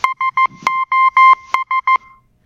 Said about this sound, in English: SOS was first adopted as a Morse code distress signal by the German government on April 1st, 1905. So if you were out on April 1st, 1905 and you heard it wasn't a joke, somebody really needed help.